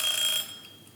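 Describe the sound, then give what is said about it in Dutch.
A kitchen egg timer goes off with a bright, high, metallic ring that holds for under half a second, then fades into a quieter lingering tail. No one speaks over it. “Ja, het ei roept.”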